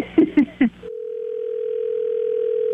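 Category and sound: signal or alarm, telephone ringing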